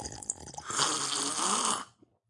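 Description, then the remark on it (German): A loud, drawn-out slurp of coffee, a hissing, airy suck lasting over a second after a few small mouth sounds, then cutting off into silence. “Ja, ich nehme auch etwas von meinem extra frischen äh, Kaffee.”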